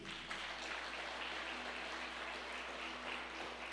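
An audience applauds loudly for the name of Jesus, a dense steady wash of many hands clapping at once, sustained without pause for several seconds with no voices standing out.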